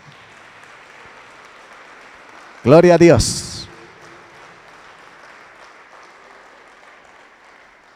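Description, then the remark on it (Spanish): A crowd applauds for God steadily at moderate volume throughout, with a loud voice briefly shouting over the clapping partway through before the applause continues on its own. “¿Cuántos pueden darle un aplauso a Dios?”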